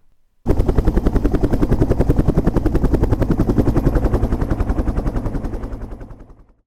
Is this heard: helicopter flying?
yes